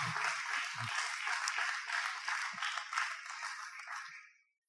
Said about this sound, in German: was sicher schon genug ist, um mit einem ganz großen Applaus willkommen heißen.